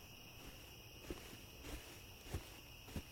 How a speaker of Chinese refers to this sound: 身后忽然传来脚步声，他难以掩饰兴奋的回过身，却是那个老人。